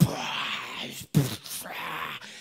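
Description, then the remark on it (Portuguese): A voice imitates loud snoring: two long, raspy, rumbling breaths separated by a brief pause, with no words spoken, mimicking the biblical Jonah sleeping deeply on a ship. “Deitou no navio, puxou um ronco daquele que, cara, o mar lá e,”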